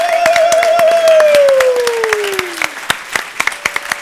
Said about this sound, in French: donc on va les inviter sur scène et surtout, on va leur faire un gros tonnerre d'applaudissements.